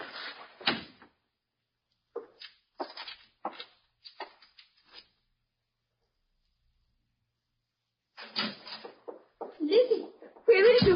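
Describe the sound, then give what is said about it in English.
A front door opens with a handful of sharp latch clicks and rattles spaced over a few seconds, then a stretch of quiet before muffled voices and movement come in near the end. “Come in through the front door. It's open.”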